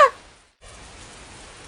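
Heavy rain pours down in a steady downpour, an even, hissing wash that continues without pause, preceded by a brief tonal trace and a moment of near silence. No one speaks.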